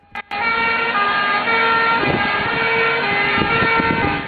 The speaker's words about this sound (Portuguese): Então, quando uma ambulância está se aproximando da gente, a gente ouve aquele som bem mais agudo, parece que o som está numa frequência maior. quando a ambulância está se afastando da gente, o som fica mais grave porque a frequência diminui.